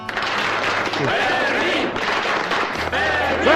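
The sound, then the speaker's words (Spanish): A crowd applauds loudly and steadily for several seconds, a dense wash of clapping with scattered shouts and whistle-like cries rising above it. “En cualquier caso, yo pido un aplauso muy grande para el guardia”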